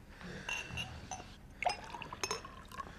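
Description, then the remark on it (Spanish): Water is poured into a glass for someone thirsty to drink, in short gurgling bursts, with a few faint clinks of glass and no talking. “Me quieres alcanzar el agua, esta maldita sed.”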